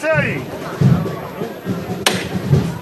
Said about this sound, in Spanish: Se distancia el capataz, suena el golpe de tambor.